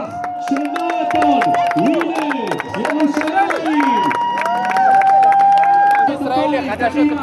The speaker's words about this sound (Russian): Тут призывают всех хлопать в ладоши все этими занимаются. Надо отдать им должное.